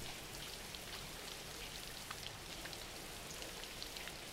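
Steady rain falls continuously, a dense even hiss of countless drops with scattered brighter patters standing out. No voices, just the constant wash of rainfall.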